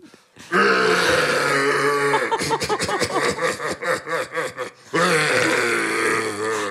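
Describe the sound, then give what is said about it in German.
A voice imitates a stag's bellow: a loud, rough, drawn-out roar, then a run of about ten rhythmic guttural grunts, then another long sustained roar. No other talking. “Auch den äh, Hirsch könnte ich auch noch nachmachen.”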